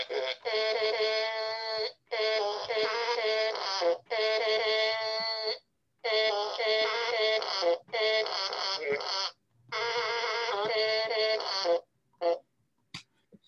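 A tune is played on a fart-sound keyboard, with buzzy, brassy flatulent notes stepping through a melody in several phrases separated by short pauses. No one speaks, and it ends with a few quick blips.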